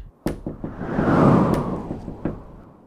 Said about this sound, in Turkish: Apay çal bakalım şu kapıyı.